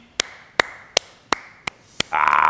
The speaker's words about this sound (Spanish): mira, el Tuca aplaudiendo.